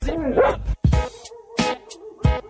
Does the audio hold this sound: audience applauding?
no